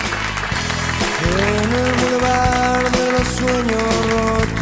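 Steady audience applause at a live music session at the Jarro Café in Madrid, a dense crackle of clapping running the whole time, mixed with music carrying sustained, gliding tones underneath.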